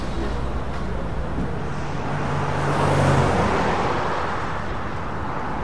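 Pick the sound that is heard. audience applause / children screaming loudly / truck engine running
truck engine running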